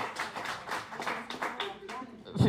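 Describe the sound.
A round of applause for a recited epitaph: a small group clapping in quick, steady, overlapping bursts for a couple of seconds, with voices talking underneath and a louder thump near the end.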